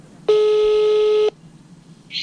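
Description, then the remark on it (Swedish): A single steady ringback tone from an outgoing phone call to Martin Stenmark, lasting about a second at a loud, constant level, followed by quiet line noise and a faint short chirp. “så jag ringde till honom och lät honom berätta”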